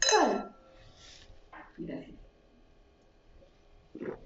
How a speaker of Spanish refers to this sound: Pues bueno, igual cerramos con un pequeño brindis. Salud.